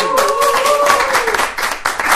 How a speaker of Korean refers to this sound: 야, 박수